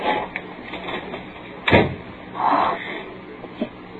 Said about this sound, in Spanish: Creo haber oído que sonó la puerta de la calle.